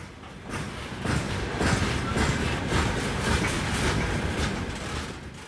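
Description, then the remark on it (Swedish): A train rolls past on the rails after midnight, a loud steady rumble with rhythmic clickety-clack beats from the wheels over the joints, with no voices. “Tåget kom förbi först efter midnatt”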